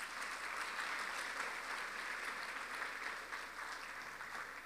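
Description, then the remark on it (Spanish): Steady applause from a group of people, a dense, continuous patter of clapping that holds at an even level for several seconds before easing slightly toward the end, with no one talking. “Démosle un fuerte aplauso a Jesús.”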